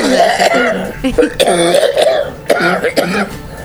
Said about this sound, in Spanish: que ponga otra vez al hombre tosiéndome.